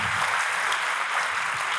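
Steady audience applause, a dense wash of many hands clapping at once, fairly loud and continuous throughout with no talking over it.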